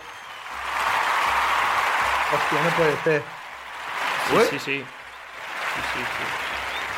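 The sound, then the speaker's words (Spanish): An audience claps steadily for several seconds, a dense wash of applause that stays loud throughout while a few excited voices speak over it. “Creo que hay gente que te quiere hacer palmas por aquí. Un aplauso.”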